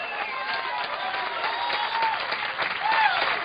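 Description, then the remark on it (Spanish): An audience claps steadily and densely throughout, a sustained wash of applause given to God, with some voices and cheers rising above it, fairly loud. “Porque no es a mí que me está aplaudiendo, sino al Dios de la gloria.”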